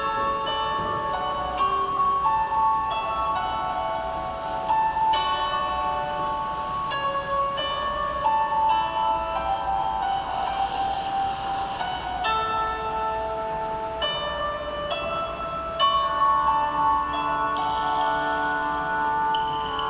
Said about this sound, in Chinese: 前奏还搭配着海浪的声响，觉得舍不得讲话。